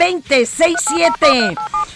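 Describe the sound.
Short, steady beeps of telephone keypad dialing tones punch through in quick succession, several button presses in a row, mixed with and partly overlapping a voice talking.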